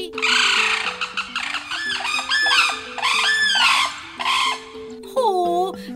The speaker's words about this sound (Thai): พี่วันกับเจ้านกกระเรียนไทยต้องบายบายน้อง ๆ พร้อมกัน นกกระเรียนจ๋าส่งเสียงบายบายหน่อย